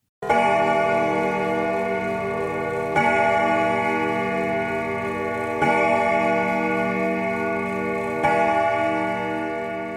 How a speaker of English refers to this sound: As long as the reading continued, Judith counted the strokes of the clock.